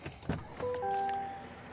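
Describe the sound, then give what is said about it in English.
A pickup truck's door unlatches with a sharp click and swings open while the truck is in reverse with the foot on the brake pedal, followed by a steady, humming electronic tone inside the cab. Fairly quiet, with no talking. “I'm opening my door”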